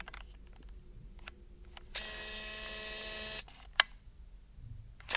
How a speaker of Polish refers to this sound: I właśnie przyniosłem swój aparat fotograficzny do, do studia i nagrywałem y, pracę tych mechanizmów, które robią zoom w tym aparacie. Inna pozycja aparatu.